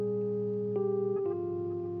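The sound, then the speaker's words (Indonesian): Old-style telephone tones, like those of former Telkom wartel phone kiosks, hum steadily, shifting pitch abruptly twice with faint clicks at each change, buzzy and continuous with no voices. “Oh ini Dari nada-nada telepon Yang mungkin telah berlalu”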